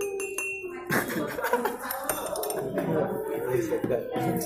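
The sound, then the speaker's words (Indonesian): Glasses clink repeatedly in quick, scattered taps amid a steady murmur of crowded café chatter, with many overlapping voices, inside a coffee shop outlet facing a street while it rains outside. “lu lu dengerin dah background background suaranya kan orang-orang ngobrol gelas-gelas ting ting ting ting nih dengerin”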